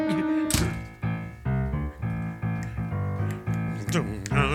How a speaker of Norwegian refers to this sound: Da kan, kaptein, ja. kan jeg be kapteinen om å skalke lukene, ja, altså lukke døren der borte? Skalk lukene